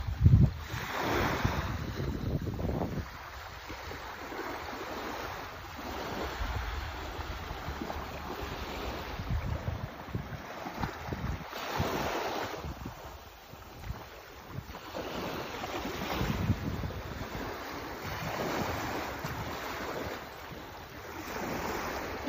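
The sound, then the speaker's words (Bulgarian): Ocean waves wash in and break on a sandy shore in a steady, broad roar, with swells rising every few seconds and wind buffeting the microphone throughout. “Много се надявам, че чуваш гласа на вълните.”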